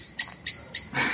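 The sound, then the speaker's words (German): A common blackbird calls with three sharp, high chinks spaced evenly apart, followed by a longer, harsher burst. Moderately faint and heard alone, with no talking. “ich habe den Eindruck, die Amsel will da auch mitschnabeln”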